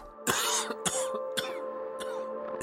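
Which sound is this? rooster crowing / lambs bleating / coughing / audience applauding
coughing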